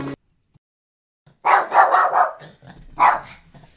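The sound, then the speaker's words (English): A female puppy yaps in a quick burst of several high barks after a brief silence, then lets out one more bark a moment later, with no talking. “based solely on the fact that she's an adorable little puppy.”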